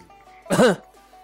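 A single short, throaty cough bursts out loudly, with a rough voiced edge, surrounded by near silence and faint background hum.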